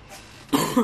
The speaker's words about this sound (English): while you do that, I'm going to go cough and die over here.